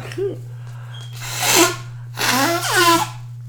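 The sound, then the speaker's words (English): Someone with allergies blows their nose twice, two loud, breathy, honking bursts about a second apart, over a steady low electrical hum. “Let me blow my nose just a little bit.”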